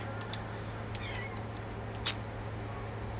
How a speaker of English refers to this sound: I just heard a cat in my earbuds. I don't know if it's in the game. I don't think it is. Um, I feel like the cat's in my house.